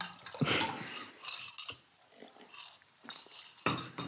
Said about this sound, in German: Jetzt mal, mal trinken. Eine Sekunde. Alles gut.